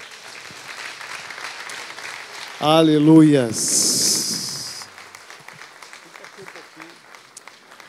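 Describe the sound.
An audience claps steadily throughout, a dense crackling patter, applauding the Lord Jesus at the close of a prayer campaign for the family. Midway a voice shouts a loud praise and a brighter, louder swell of cheering and clapping rises before settling back to the steady applause.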